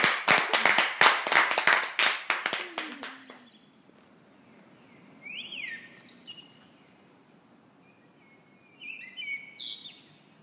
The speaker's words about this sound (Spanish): Ya, un aplauso para pedirnos ¡Bravo!